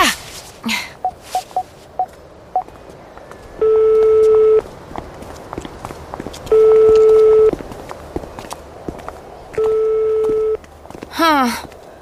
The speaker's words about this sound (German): Ja, ruf ihn noch mal an. Dann wissen wir, wo er steckt. Gute Idee. Oh, wo habe ich denn mein Handy? Ach, da.